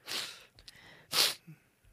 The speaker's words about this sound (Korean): 아이고 아, 계속 제가 그제, 비염이 어, 음. 지금 또 막 터져가지고 네. 계속 재채기가 나올랑 말랑 하는 그런 상황이에요.